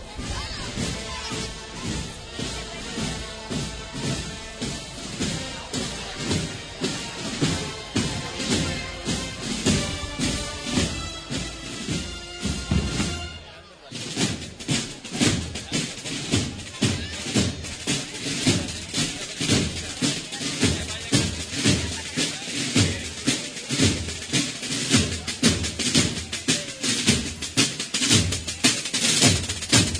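The marching band of Huévar, from Aljarafe, Seville, accompanies the procession of the Virgen del Prado, playing steadily for the whole stretch, with brass holding sustained chords over a loud, regular beat of drums and cymbals; the music briefly dips midway, then resumes strongly.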